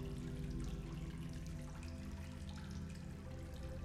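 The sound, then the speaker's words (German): Water sloshes and pours steadily as fresh water is scooped from a spring into a jug, a continuous gurgling and splashing that holds an even level throughout, with no voices. “spülte gleich ihren Krug recht sauber aus und schöpfte am hellsten Flecke der Quelle frisches Wasser.”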